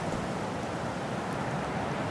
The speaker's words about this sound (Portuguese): Preste atenção aos sons do vento, passeando preguiçosamente entre milho, acariciando suavemente o trigo.